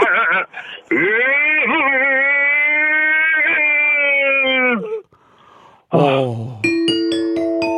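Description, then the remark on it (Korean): A voice imitates the siren of a police car following a Lamborghini from behind, with long, loud, wavering wails, followed after a brief pause by a bright stepped two-tone pattern. “그 경찰분, 저 경찰차가 뒤에서 따라가면서 그런 것까지 굉장히 좋았어요.”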